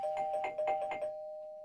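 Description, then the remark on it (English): A trivia bell rings in a quick burst of about five rapid strikes, then its bright tone lingers and fades. It sounds clear, with no voices. “After all of that, all those facts about all those guests, I think that's the trivia bell.”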